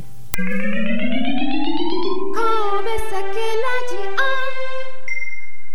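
A short, bright jingle for the radio show Kobe Sake Radio (神戸酒ラジオ), with a rising, tinkling melody that builds into a busier chiming flourish and ends on a sustained high note, loud, with no voices.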